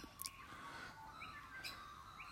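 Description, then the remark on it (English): Birds chirp in short, bright bursts scattered across a few seconds, fairly faint over a steady low background hum, with no voices. “God, listen to those birds. They are so delightful.”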